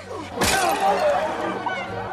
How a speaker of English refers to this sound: One man smashes the Virgin Mary with a stick.